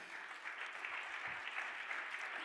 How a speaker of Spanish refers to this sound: El otro aplauso fuerte.